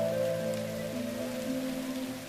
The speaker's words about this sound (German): Aber wenn Regen gebraucht wird, können die Wetterhelden auch diesen hervorzaubern.